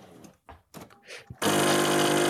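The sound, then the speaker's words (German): A coffee machine being filled suddenly kicks on after a few brief, quiet sounds, settling into a loud, steady mechanical whirring hum that continues without a break. “ich mache nebenher meine Kaffeemaschine voll und nehme einfach alle Geräusche für euch auf.”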